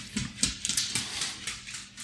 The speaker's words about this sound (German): Was klackert Leute, ah, da denn? Äh, da läuft ein Hund rum. Hund, ich wollte gerade sagen, das, läuft, das klingt nach Hund.